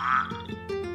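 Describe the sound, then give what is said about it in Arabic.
A frog croaks, a loud, buzzy, nasal call lasting about a second that wavers into a couple of short pulses near the end, with no talking over it. “بعدين الضفدع اللي كان بالكبت اتزحلق وقع بالجدر”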